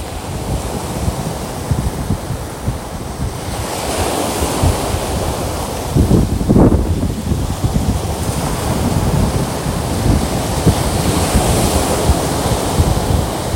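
Strong wind gusts roar steadily by the sea at a beach on Samothraki, buffeting the microphone with deep rumbling bursts over a constant wash of surf, loud throughout with no voices.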